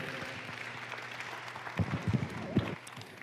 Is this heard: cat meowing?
no